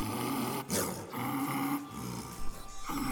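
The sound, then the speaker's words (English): A tiger, stung by hornets in bushes, roars in pain, loud, a rough, strained growling that surges in several bursts across about three seconds with no talking. “And soon he was also roaring, not with laughter, but with sharp pain.”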